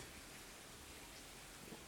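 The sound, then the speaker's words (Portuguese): Soft, steady rain falls outdoors at night in a town in the interior of Rio Grande do Norte, Brazil, a continuous even hiss with no breaks or individual drops standing out, heard faintly, with no voices. “E no momento é, dessa gravação, é, tá, tá chovendo, tá chovendo aqui na, na minha cidade.”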